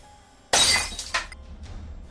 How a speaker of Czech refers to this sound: Hodil jsem předmět hned před sebe k jeho nohám. Lampa se rozbila a rozlivší se tekutina se okamžitě rozhořela.